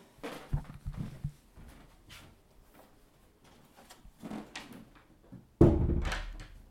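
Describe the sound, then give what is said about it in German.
A door is shut: a few soft knocks and rattles of handling, then a loud, heavy thud as it closes near the end, with a brief rumble trailing after. “Ich glaube, ich mache hier einfach zu, damit ihr nicht so viel Meme-Geräusche habt.”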